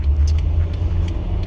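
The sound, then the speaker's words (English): Steady low car engine rumble and road noise from inside a moving vehicle as the driver makes a turn, fairly loud and continuous, with faint higher ticks or clicks over the drone and no voices. “Sorry, I was making a turn.”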